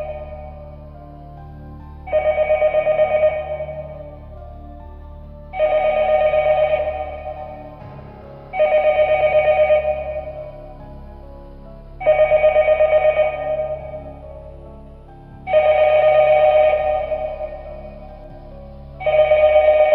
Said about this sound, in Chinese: 电话铃又响了。 哎呦，我 天 去， 我去， 这回响的时间特别长